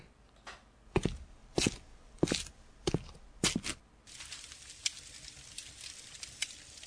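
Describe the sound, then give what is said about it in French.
Shoes knocked against a doorstep: six or so dull, solid thuds at an uneven pace, the last two in quick succession, followed by a soft gritty scuffing and crackle. No voices. “En rentrant à mon tour, je n'ai pas oublié de cogner mes chaussures contre le pas de la porte.”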